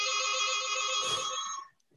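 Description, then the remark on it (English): A phone's text message tone chimes once as a text from the speaker's brother arrives, with bright, sustained electronic tones that ring steadily for over a second before fading, with no talking over it. “brother's texting me.”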